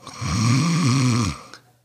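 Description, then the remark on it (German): A voice imitates a single long nasal snore, a steady buzzing drone lasting over a second with a slight wavering pitch, fairly loud, then cutting off. “Dieser typische Nasenschnarcher”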